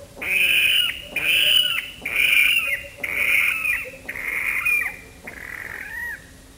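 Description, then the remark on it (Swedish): A water rail in a reed bed gives a series of six loud, harsh pig-like squeals, each about a second long and fading at the end, repeated in steady rhythm with no talking. “Jag har bara varit med och ringmärkt ett par stycken men det är ju sanslöst roliga fåglar med roligt läte. Det låter som att de skriker som en gris i vassen.”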